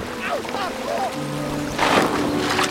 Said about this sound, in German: Da drückt man einmal falsch und schon ist äh, der nächste Kram wieder im Wasser gelandet.